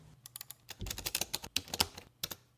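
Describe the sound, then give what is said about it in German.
A short burst of rapid, crisp computer keyboard clicking, with irregular keystrokes clustered in quick runs over a faint low background hum, used as the jingle for the 'Klick der Woche' segment. “Nee, ich wollte gerade den perfekte Überleitung unseren Klick der Woche Sound machen in den Ach so.”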